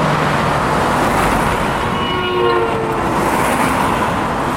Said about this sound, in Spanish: los carros pasaban y, y le pitaban.